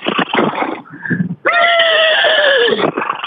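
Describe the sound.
A person imitates a pony's whinny with a loud, wavering, high-pitched voice that holds for over a second, preceded by shorter rough vocal bursts and a brief squeak; contestant number 2, calling in by phone, in an imitation contest.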